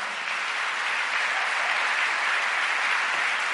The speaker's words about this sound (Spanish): Le damos ese aplauso fuerte al Señor.